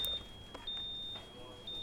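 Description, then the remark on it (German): A thin, steady high-pitched electronic alarm tone from a ventilator sounds continuously while ventilators are being assembled and tested, with a few soft clicks and rustles behind it. “Es herrscht konzentrierte Stimmung, trotz der verschiedenen Alarmsignale, die immer wieder unvermittelt aufheulen.”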